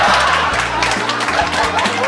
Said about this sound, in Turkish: Yuhalayın. Yuhalayın kadınlar.